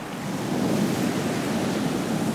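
Steady rushing surf of sea waves washing onto the shore, a broad continuous roar with a faint swell in loudness, no voices present.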